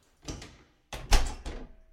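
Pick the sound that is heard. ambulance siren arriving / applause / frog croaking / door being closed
door being closed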